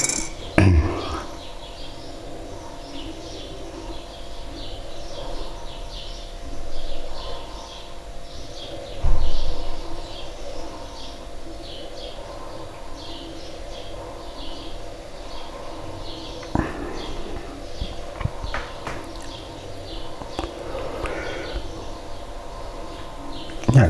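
Faint birds chirp intermittently outside, heard through a tilted-open window, over a steady low hum of a refrigerator indoors, with occasional soft clinks and bumps; no cars are heard.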